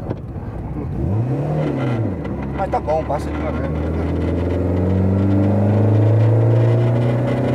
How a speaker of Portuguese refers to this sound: coisa dos motores aspirados assim, que, que gira, que coisa que ele não te mata, ele não te dá é. tudo, ele tá linear